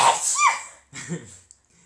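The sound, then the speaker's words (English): A loud, breathy sneeze bursts out with a brief voiced pitch rise in the middle, then a shorter, lower sound follows after a short pause. No one talks. “Bless you.”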